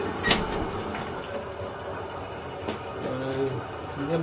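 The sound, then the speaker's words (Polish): A constant roar of ventilation fans pushing air under a compost pile in a basement mushroom-growing hall, aerating it, fills the space: a steady droning whoosh with faint humming tones and a few brief metallic clicks, fairly loud throughout. “Hałas jest od wentylatorów, które tłoczą powietrze pod spód pryzmy i napowietrzają ją, dostarczając y, tlen do podłoża oraz regulują w ten sposób temperaturę tego podłoża”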